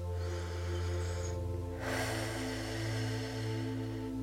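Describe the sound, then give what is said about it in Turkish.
A slow, deep breath drawn in, airy and steady, over a soft sustained musical drone with no talking. “Derin bir nefes alıyoruz.”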